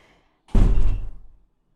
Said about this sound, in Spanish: Ok, tiraron una puerta.